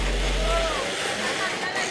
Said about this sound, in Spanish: Bueno, pasa una moto.